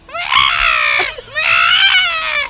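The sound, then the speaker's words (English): A person's voice imitates the scream a huge frog makes when caught: two loud, drawn-out, ragged shrieks separated by a brief gap, with no talking. “It's like a group effort, but when you catch it, it screams.”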